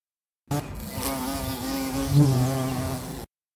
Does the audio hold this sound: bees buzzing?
yes